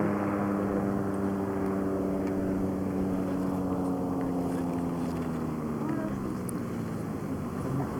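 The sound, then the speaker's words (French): A small aircraft engine drones steadily and loudly, its buzzing, tonal hum holding for several seconds before sagging slightly in pitch toward the end. “Et il a, arrêté, il a arrêté le moteur là, il est comme plus.”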